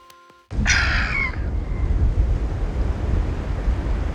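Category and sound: nature, wind blowing outdoors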